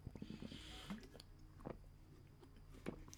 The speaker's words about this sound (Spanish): Disculpenme, tuve que tomar agua porque la verdad es que a veces se me va mucho la voz.